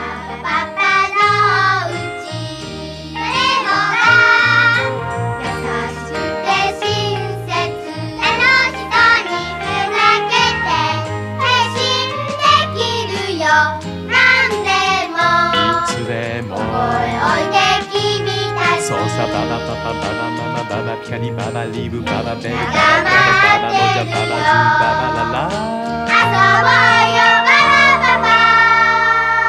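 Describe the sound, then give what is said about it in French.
A bright, bouncy cartoon theme song sung in Japanese, a Japanese adaptation of the theme known in France, with a lively vocal over steady bass and tinkling accompaniment, playing loud and continuous throughout. “L'un est une création locale réalisée pour la série de 1977, mais le générique que nous connaissons nous a lui aussi été adapté, et je vous propose d'écouter cette curiosité.”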